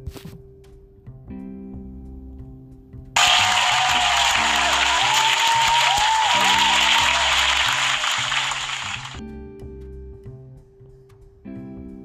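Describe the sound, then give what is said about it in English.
A loud burst of applause and clapping for Auntie Anita rises suddenly, lasts about six seconds, then tapers off, with a steady low musical bed playing underneath before and after. “Round of applause for Auntie Anita in the fucking building.”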